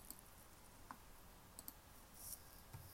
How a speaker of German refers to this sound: Ich hoffe wirklich, man hört nicht das Klicken zu laut. Es tut mir wirklich leid.